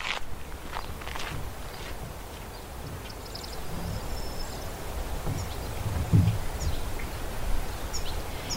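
Quiet outdoor ambience of the dry bed of a temporary lagoon by a visitor centre, once artificially pumped with water for many years: steady low rumble with faint scattered bird chirps, soft rustling and occasional crunching footsteps, no voices.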